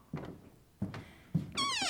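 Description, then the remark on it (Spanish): A narrow wooden door into a bedroom opens: three dull thumps of the door being handled, then a high, wavering hinge creak at the end. No one speaks. “Como ven, debemos inclinar un poco la cabeza para entrar por esta puerta tan estrecha”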